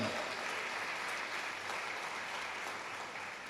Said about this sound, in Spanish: ¿Cuántos le aplauden a Dios? Dicen amén.